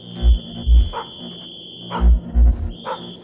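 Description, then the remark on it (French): A dog barks in two pairs of deep, punchy woofs, with a pause between the pairs. A steady high-pitched whine runs underneath throughout, and no one speaks. “Soudain, un aboiement retentit.”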